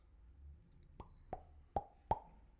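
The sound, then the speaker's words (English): A phone's bamboo text tone: four hollow, woody knocks with a resonant ring, evenly spaced and rising slightly in loudness, heard alone with no talking. “Oh no, it was uh my ringtone. It's my... like the bamboo text.”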